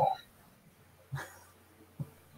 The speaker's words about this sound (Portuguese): Tem um cachorro latindo aí pra caralho, hein?